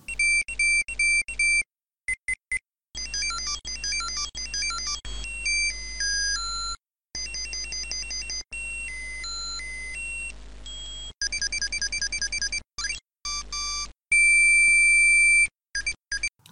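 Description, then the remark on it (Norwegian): Tamagotchi virtual pet beeping: a series of high, thin electronic beeps and chirpy melodic jingles, stopping and starting with brief silences, ending in a steady tone, with no one talking. “Husker du lyden av Tamagotchien?”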